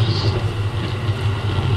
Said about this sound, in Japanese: え寝台特急カシオペア号北の都札幌へ向けまして、え時間通り運転しており